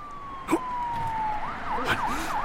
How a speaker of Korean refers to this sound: 어, 경찰차지? 또 무슨 일이 났나?